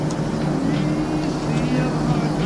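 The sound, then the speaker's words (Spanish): A car drives along with a steady, loud low engine rumble and road hum that holds constant throughout, with muffled voices faintly in the background. “¿Qué crees que es esto? Un coche.”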